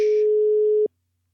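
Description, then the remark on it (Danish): A single steady ringback tone from an outgoing phone call, a clear mid-pitched hum holding for under a second before cutting off into silence, with nobody speaking. “Vi ringer. Ja, jeg, jeg tager den. Den, er, den ringer, okay.”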